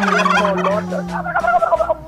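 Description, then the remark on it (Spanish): A turkey gobbles loudly, a rapid warbling rattle that runs for about two seconds, with a second burst of gobbling near the end and no talking over it. “te quería preguntar, ¿todavía tienen los chumpes, no?”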